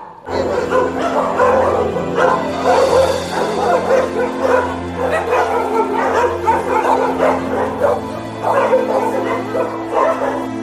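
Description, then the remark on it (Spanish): Several dogs bark and yip over one another in a steady, loud jumble for the whole stretch, with higher whimpering cries mixed in between the barks. “Para tratar de salvar los pejos y los gatos.”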